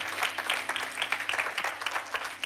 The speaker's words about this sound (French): je souhaite qu'on puisse euh, remercier en applaudissant à tous ceux qui ont permis que tout ça puisse se faire, s'il vous plaît.